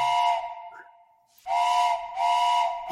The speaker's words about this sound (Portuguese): Olha o trem. Piuí, olha o trem.